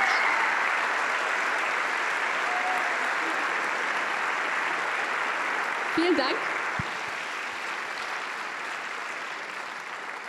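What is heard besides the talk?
audience applause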